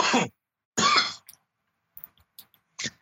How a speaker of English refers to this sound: cough out his lungs over here.